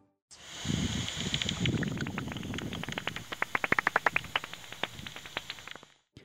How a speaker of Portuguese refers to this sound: A ecolocalização consiste na emissão de sons pela boca e narina dos morcegos que, ao atingirem um objeto ou presa, refletem na forma de ecos e são percebidos pelo animal. Ouça o som desses animaizinhos capturados por um aparelho específico.